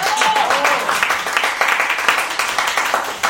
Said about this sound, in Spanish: A ver, niño, aplausos a Cristian.